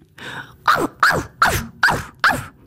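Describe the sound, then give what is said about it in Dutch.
A veterinarian imitates a dog as a short barking audition for a new app, letting out five short, loud barks in a steady, evenly spaced rhythm with no other talking. “Eh, bent u dan zelf kandidaat om te blaffen op de nieuwe app als dierenarts ook?”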